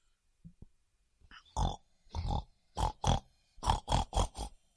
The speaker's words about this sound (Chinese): 呼噜呼噜，呼噜呼噜，皮皮猪呼唤着。呼噜呼噜，呼噜呼噜，是妈妈的声音。